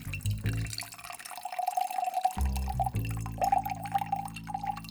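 An Aviation cocktail of gin, maraschino liqueur, lemon juice and creme de violette, shaken, pours steadily into a glass, a continuous trickle with a rising ringing tone as the glass fills, broken by a brief pause before the pouring resumes.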